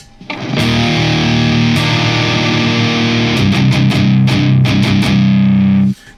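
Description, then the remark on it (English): A loud electric guitar played through a low-gain fuzz pedal, its gain set almost fully counterclockwise to near minimum, rings out in thick, sustained chords, with a few quick restrikes and changes near the end before cutting off abruptly. “Now it's nice and loud, and the gain is almost completely counterclockwise, meaning the gain of that pedal is almost minimal.”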